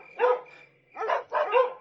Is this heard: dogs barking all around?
yes